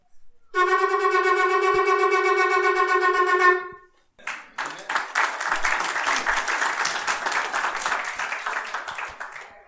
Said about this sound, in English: The next blast that they do on Rosh Hashanah is called the Teruah. It is a call to war